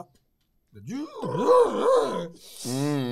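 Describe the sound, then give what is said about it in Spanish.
A person vocally imitates a dial-up modem connecting to the Internet: swooping, warbling tones and a grinding buzz, then a hissy burst ending in a steady pulsing screech, loud, about two seconds long. “pero, todos nosotros vimos llegar a Internet. todos nosotros conocemos el sonido del...”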